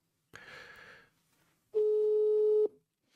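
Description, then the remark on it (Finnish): A short rush of noise comes first, then one steady, loud electronic telephone tone that holds for about a second before cutting off, like a ringback tone on a call. “Nyt on, fan, nyt on fanipuhelun aika.”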